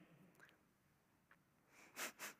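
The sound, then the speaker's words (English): A voice imitates sniffling: a few faint nasal sniffs, then two louder, sharper sniffs close together at the end, with no talking. “And then I noticed, started off with the sniffles.”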